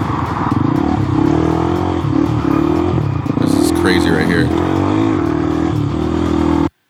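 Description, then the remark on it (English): A loud car engine revs and roars steadily throughout in a video being played, its pitch rising and falling, while a man speaks briefly over the noise. “All right, there's the car. Passes him up, and then he goes off road.”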